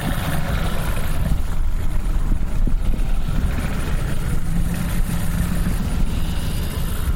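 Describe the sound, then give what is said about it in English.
A steady, low engine rumble idles, a boat motor churning continuously with faint water noise and no voices, as the boat pulls up at a boat landing in Grand Bayou. “as soon as his boat pulled up.”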